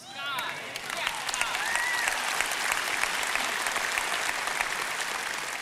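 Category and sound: crowd, audience clapping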